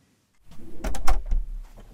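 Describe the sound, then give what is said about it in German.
A heavy double door into an acoustics listening lab being opened: a low rumble of movement, then a quick cluster of sharp latch clicks and wooden knocks, with no voices. “Durch eine Doppeltür führen mich der Reto Piren und der Bea Schäfer ins Hörlabor.”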